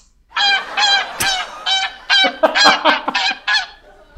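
A flock of geese honking loudly and repeatedly, about a dozen harsh nasal calls in quick overlapping succession, with no speech.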